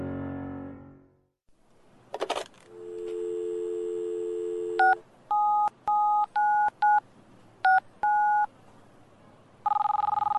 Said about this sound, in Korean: 어디론가 전화를 걸었다.